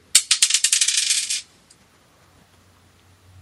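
The third of five dice, rolled one at a time for a prize draw, clatters and tumbles across a hard surface in a quick burst of bright, sharp clicks that speed up and fade out after about a second, followed by near silence.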